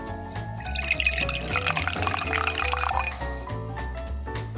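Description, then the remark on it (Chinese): A soda being poured, a steady bubbly splashing and hiss of liquid filling a glass, running for several seconds over continuous background music with a low, pulsing bass line. “我好像听到了有人在在倒饮料。”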